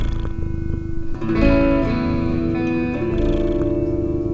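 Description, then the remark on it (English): A cat named Francis purrs low and steady beneath sustained electric guitar notes drenched in effects, purring along with a song as a guitarist plays lead guitar; the purring is continuous while the guitar swells over it. “On lead purr, Francis.”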